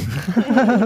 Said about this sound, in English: From my burp. Bless you.